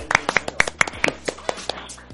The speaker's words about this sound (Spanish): ¡Un aplauso!